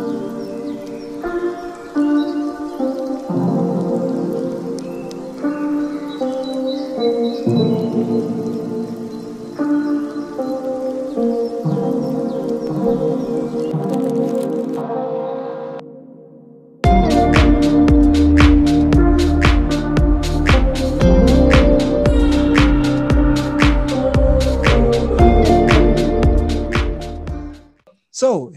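A recorded song, a musician's latest single, plays: a gentle, melodic opening of sustained notes, a short dip, then a loud, full-band section with steady drums and dense instruments that cuts off abruptly at the end.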